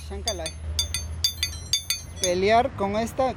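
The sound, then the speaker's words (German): The two metal blades of a pair of scissors used in scissor dancing clink together in a quick, rhythmic pattern, about seven bright ringing strikes, followed by a wavering voice-like tone that overlaps the last few clinks. “Mit fünf Jahren lernte er, beide rhythmisch klingen zu lassen.”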